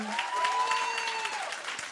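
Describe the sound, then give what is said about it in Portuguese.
Steady audience applause at a morning church gathering, a dense wash of many hands clapping at an even level throughout, with a faint sustained tone and some cheering woven underneath. “E nessa manhã, podem aplaudir, gente.”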